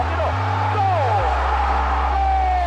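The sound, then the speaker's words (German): A large crowd in a football stadium roars continuously at a steady, loud level right after a goal for Brazil, with many overlapping voices, scattered shouts and whoops rising out of the dense wash of noise. “Das Tor war eine Explosion. Der Lärm auf den Rängen ohrenbetäubend.”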